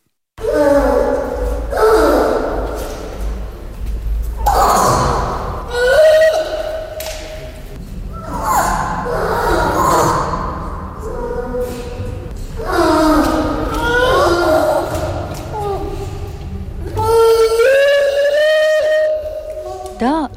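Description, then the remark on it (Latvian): Seal pups at the Riga Zoo in Latvia bawl in spring, calling for their mother or from hunger, in a series of loud, drawn-out wailing calls, rising and falling in pitch, repeated every few seconds with overlapping cries and no talking. “Roņu mazuļi brēc, kad vēlas sasaukt mammu vai ir izsalkuši.”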